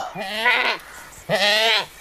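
A ram bleats twice, each call a loud, quavering, mid-pitched cry lasting about half a second, with a short silent gap between them and no talking.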